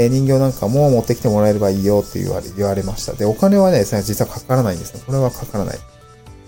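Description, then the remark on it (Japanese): A steady, loud, high-pitched cicada drone buzzes continuously beneath a person talking, filling the background outdoors without pause. “すごいセミの声だな。”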